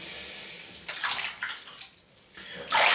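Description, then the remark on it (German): Water sloshes and splashes in a bathtub of cooling bath water in several bursts, with a louder splashing surge at the end as someone moves to get out of the bath. “Jetzt muss ich aber raus hier. Das Wasser wird so langsam kalt.”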